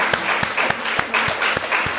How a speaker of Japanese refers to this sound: 大きな拍手しましょう